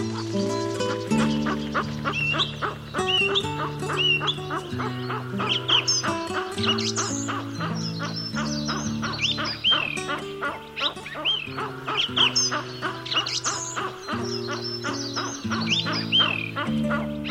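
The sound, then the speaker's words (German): Western capercaillie calls, a busy run of dry clicks, pops and gurgling notes repeating throughout, over a steady, low droning background with no talking. “Das war das Auerhuhn.”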